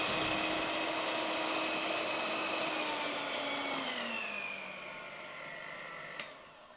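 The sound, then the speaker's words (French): An electric mixer whirs steadily as it whips chickpea water into foam, a loud buzzing motor whine whose pitch sags partway through, then a small click near the end. “Il Faut battre assez longtemps, un peu plus longtemps que les œufs en neige classiques.”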